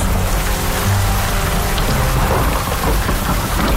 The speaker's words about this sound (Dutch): De regen en onweer streamt in het gelaat.